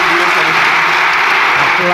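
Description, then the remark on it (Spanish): Loud, dense parliamentary applause from the Socialist ranks, many hands clapping in a steady unbroken wash for the full two seconds, with a murmur of voices mixed in beneath. “Aplauso sonoro y cerrado en las filas socialistas.”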